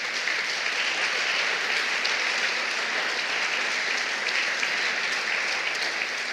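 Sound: audience giving loud applause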